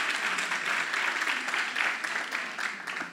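An audience claps steadily for a few seconds after hearing the news that registration for the meetings is no longer needed, a dense, bright patter of many hands that stays fairly even in loudness throughout, with no voices standing out.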